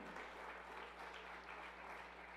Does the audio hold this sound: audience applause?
yes